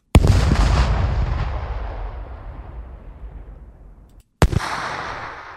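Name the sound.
explosion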